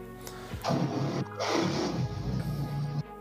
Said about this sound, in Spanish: Saludos a la moto que pasó ahí en casa de Richard.